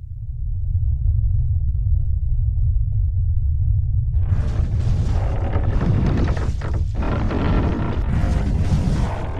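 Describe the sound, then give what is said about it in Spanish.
Underground sound of a holm oak root growing down through soil, captured with hypersensitive contact microphones and amplified: a steady deep rumble, then after a few seconds a dense crackling and grinding texture takes over, loud and continuous. “Esto que escuchas es el sonido subterráneo del crecimiento de la raíz de una encina atravesando la tierra hacia las profundidades, captado por micrófonos de contacto hipersensibles.”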